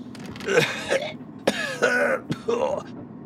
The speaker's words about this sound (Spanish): a cierta hora de la madrugada, te despierta tu propia tos.